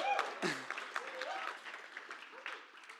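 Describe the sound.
A burst of audience applause in Skåne, dense rapid clapping from many hands with a few whoops and cheering voices mixed in, steady and fairly loud throughout.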